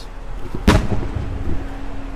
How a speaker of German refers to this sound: Jetzt sind wir ganz nah an der Grenze zum Gazastreifen. Immer wieder hört man den dumpfen Knall, wenn die israelische Artillerie nach drüben schießt.